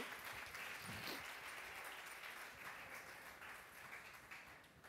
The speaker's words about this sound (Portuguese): Aplauda, se for para aplaudir, aplauda com alegria do seu coração.